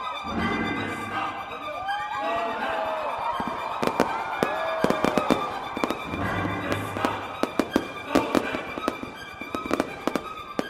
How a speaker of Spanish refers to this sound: Un rato después, a las 9 de la noche, comienza oficialmente el festival con una poderosa descarga de fuegos artificiales.